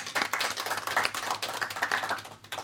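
An audience applauds steadily, a dense patter of many hands clapping at once, crisp and bright, holding at an even level throughout with no voices over it; the applause is for the producer named in the credits of the Radio Total Normal radio show.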